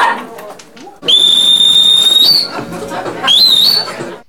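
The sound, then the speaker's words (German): Two loud, sustained whistles with a rising pitch at the start of each, the first long and steady, the second shorter and sliding upward, over a low background murmur of voices. “Wer hat gepfiffen und wo?”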